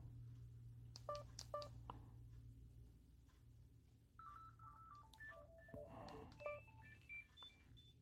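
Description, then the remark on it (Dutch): A quick series of telephone dialing tones, keyed to test a phone line during a telephone outage: short paired beeps in an uneven rhythm, followed by a longer run of rapid tone presses over a low steady hum. “Even kijken als, als de telefoonstoring heeft. Laten we dat even proberen.”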